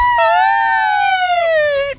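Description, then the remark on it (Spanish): A loud ambulance siren wail holds one steady, bright tone that slowly drifts downward in pitch for nearly two seconds before cutting off abruptly. No voices are heard. “Escucha ¿cuál era el aspecto aquí de ambulancia?”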